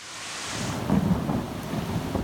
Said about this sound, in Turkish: Kütahya'da da kuvvetli sağanak hayatı vurdu. Caddelerde, sokaklarda su birikintileri oluştu. Birçok ev ve iş yerini su bastı.